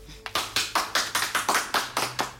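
Two people clap their hands, about ten sharp, bright claps in a fairly steady but slightly uneven rhythm. The clapping is loud and clear, with no voices.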